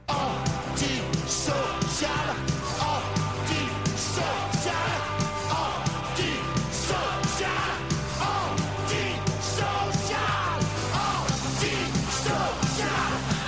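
A crowd of voices shouts the chant-like chorus of a French punk song over loud, driving rock music with pounding drums, dense and energetic throughout.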